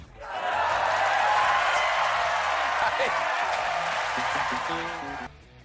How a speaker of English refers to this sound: and the crowd goes wild.